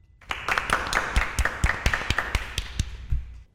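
Scattered clapping from a group of schoolchildren in a classroom for a new quiz host, about a dozen uneven claps over a few seconds, fairly soft and unenthusiastic, with a faint murmur beneath.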